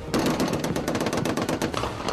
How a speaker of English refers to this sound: I maneuvered in with third squad. Uh, we fired into the building.